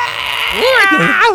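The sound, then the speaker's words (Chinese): Children shrieking and squealing as they run around and play at a cherry blossom viewing spot with trees in full bloom, their high, wavering cries rising and falling in quick bursts over a steady background hiss. “小朋友就是一直在那边跑来跑去，然后就是尖叫的声音，然后玩耍的声音，然后 听起来怎么有点吵？小朋友跑来跑去，有尖叫的声音。”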